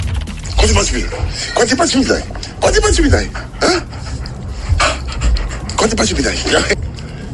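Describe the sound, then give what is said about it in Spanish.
A dog, Lucky, pants in quick, steady bursts while its owner Kylian Mbappé plays with it and talks playfully over it throughout, in a video posted on social media. “y también es viral, eso porque puso un video en las redes sociales jugando con su perro Lucky.”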